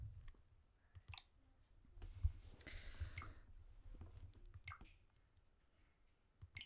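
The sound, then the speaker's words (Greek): Nintendo game console menu sounds and button clicks while browsing the Redownload Software menu: a string of short, crisp clicks and soft chimes at an uneven pace, fairly quiet, with a brief whooshing swell in the middle. No one speaks. “πάμε λίγο στο Redownload Software να δω αν έχω και τίποτα άλλο ακούτε και τον χαρακτηριστικό ήχο”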